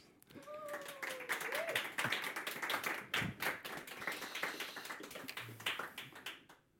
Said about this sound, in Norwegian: Gi han en varm applaus.